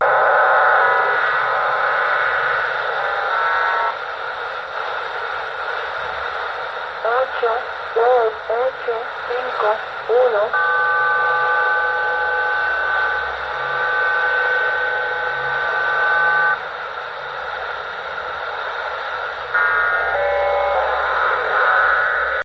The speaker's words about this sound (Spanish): Hay otra emisora en castellano, bueno, es desde Cuba, que es la emisora de los números